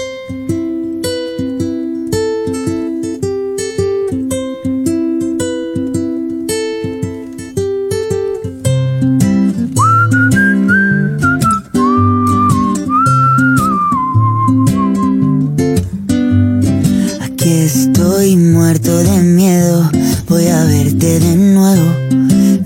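A loud, upbeat pop track opens with a steady rhythmic groove; partway through, a bright whistled melody glides over the music for several seconds before the arrangement grows fuller.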